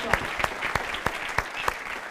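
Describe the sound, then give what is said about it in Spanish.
An audience claps loudly and steadily for the King of Kings during a sermon, sharp unified beats landing about three times a second over a dense wash of scattered applause. “Él el fuerte aplauso al Rey de Reyes.”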